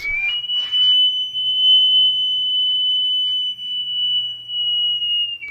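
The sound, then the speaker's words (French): A water-filled terracotta pot whistles a single high, clear tone that rises briefly at the start, then holds nearly steady for about five seconds, with some breathy airy noise at the beginning. A man moves the pot, and the moving water makes the whistle, imitating birdsong. “Oui, oui, oui, des pots de différentes formes, plus ou moins remplis d'eau, et quand le gars bouge le pot, le mouvement de l'eau produit ce sifflement modulé selon la forme du pot.”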